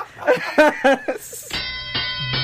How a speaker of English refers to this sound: let's let's ring that bell.